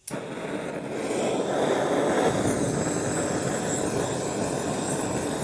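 A blowtorch roars steadily as its flame hits cubes of confit pork belly, a dense, sizzling crackle running through the loud, constant hiss for several seconds, with no talking.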